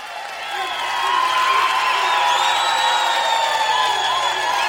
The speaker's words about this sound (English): Ladies and gentlemen, let's have a round of applause.